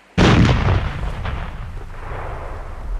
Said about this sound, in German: Und weil man zuvor Salut geschossen hatte, um den Tag der Jungfernfahrt zu feiern, so waren die Kanonenpforten noch offen, als sie sich neigte.